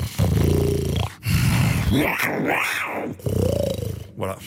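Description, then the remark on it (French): A person imitates a lion's roar with their voice, giving several loud, growling vocal bursts with rising and falling pitch, with no other talking. “bon je fais pas très mais sinon il y a le lion.”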